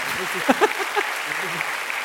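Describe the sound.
Steady, crackling applause runs through the whole clip at a moderate level, with a few short voiced sounds, like brief exclamations or laughter, popping up over it.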